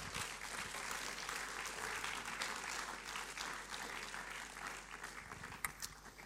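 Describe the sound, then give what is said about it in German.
A crowd applauds steadily, a dense wash of clapping that holds for several seconds before thinning slightly near the end, with no voices over it. “Geben wir ihnen zwei Riesen Applaus.”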